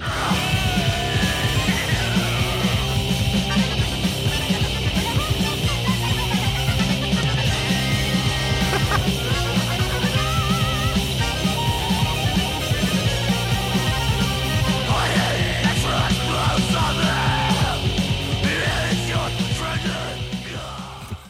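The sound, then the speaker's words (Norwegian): A recording of a loud, continuous accordion solo with sustained reedy chords and a busy melody over a steady bass pulse, playing at constant volume for about twenty seconds before easing slightly at the end. “…. Det er jo verdens beste tittel. Og for en solo.”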